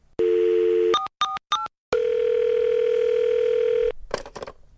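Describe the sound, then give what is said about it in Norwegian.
A steady telephone dial tone from a woman's call to the 911 emergency line on 26 December 1996 at 05:52, in the JonBenét Ramsey case, then three quick keypad beeps and a long sustained tone, ending in a few soft clicks and rustle. Clear, with no one speaking. “Den 26. desember 1996 klokken 05.52 ringer en dame til operasjonssentralen 911.”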